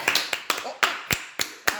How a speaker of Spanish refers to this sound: Sí, un aplauso para las chiquillas del ah, OAC.